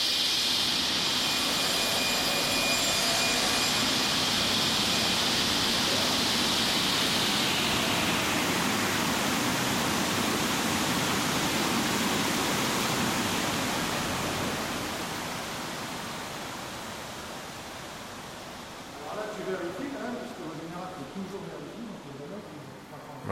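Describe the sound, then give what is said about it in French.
A power tool cuts through a wooden board, giving off a loud, steady roar with a high whine that fades out over several seconds. A voice speaks briefly near the end. “ça y est, la planche est coupée.”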